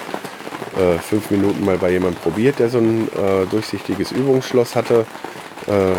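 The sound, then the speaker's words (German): Heavy rain pours down steadily, a dense hiss with water running off a stage canopy through an improvised drain, continuing beneath a man talking throughout. “der improvisierte Abfluss vom Vordach der Bühne, der nicht bei dieser Regenmasse, die jetzt gerade runterkommt”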